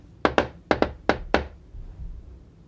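A broom handle knocks on the ceiling of a flat in an apartment building at night, six times in three quick pairs, dull and fairly loud thuds, followed by quiet room tone.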